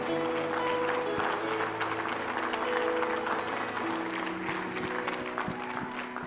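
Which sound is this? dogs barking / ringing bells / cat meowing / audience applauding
audience applauding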